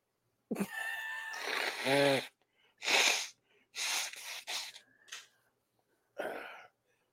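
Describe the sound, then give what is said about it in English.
A person makes a series of loud, breathy nasal snorts and blowing bursts, one long and wheezy followed by several short sharp ones, then a final snort after a pause; no talking. “Yeah, if you blow your nose on air, that means you're doing cocaine.”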